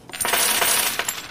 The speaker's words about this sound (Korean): 와, 동전이 와르르 떨어지네요.